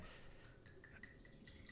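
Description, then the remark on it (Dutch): White wine, dark in colour for a white wine, trickles steadily into a glass, a soft continuous pour with small gurgles and clinks of rising pitch. It is quiet, with no voices. “Dus ik zal hem eens even inschenken.”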